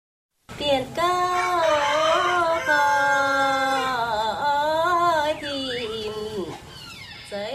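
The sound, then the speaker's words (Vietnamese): Dao women sing a traditional pao dung folk song calling in the spring, rehearsing for a spring festival in a wooden house roofed with palm leaves beside a crackling fire; a slow, wavering melody with long held notes carries on steadily for several seconds. “bên bếp lửa bập bùng, tiếng báo dung của các bà các chị ngân nga gọi mùa xuân về.”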